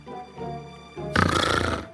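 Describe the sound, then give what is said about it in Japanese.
A plump black pig, poking its head out of a pile of coconuts on a ship, grunts loudly, a rough, raspy snort lasting under a second, after a brief stretch of low, murmuring tones. “船長さん船長さんはいらっしゃいますか一匹のぽっちゃりとした黒豚がヤシの実の山から頭を出しました”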